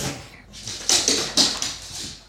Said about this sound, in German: ja, Hund, du musst dich schütteln.